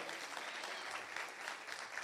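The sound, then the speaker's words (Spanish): An audience claps steadily in sustained, dense applause to God during a sermon, many hands at once filling the space at a moderate level, with no voices standing out. “Vamos, dar un aplauso al Dios que está vivo.”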